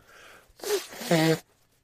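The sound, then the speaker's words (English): A single person blowing their nose: a short breathy rush of air that ends in a loud, buzzy nasal honk, about a second long, with quiet before and after. “I'm sorry for blowing my nose”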